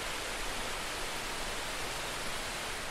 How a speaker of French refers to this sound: Ce qui le différencie, ben, vous entendez la rivière derrière vous, n'est-ce pas Voilà